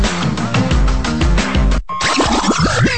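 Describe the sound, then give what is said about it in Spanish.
A loud, busy radio station bumper sound effect: a dense musical bed with a driving beat, a sudden cutout, then a string of springy boing-like swoops and whooshes, with no voices. “Vamos a tirar el bumper con los números de teléfono para que lo anoten y empiecen a llamar.”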